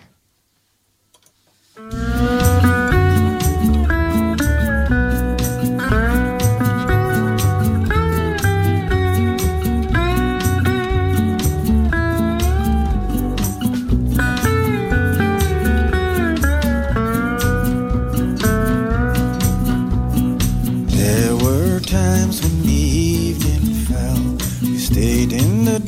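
After a brief moment of silence, a recorded song kicks in loud and full, with steady rhythmic instrumentation and bright melodic lines playing continuously to the end, no one talking over it.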